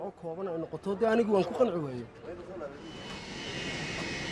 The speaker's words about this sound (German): Am Flughafen von Hageisa bringt ein Flugzeug gerade junge Somaliländer aus Libyen zurück.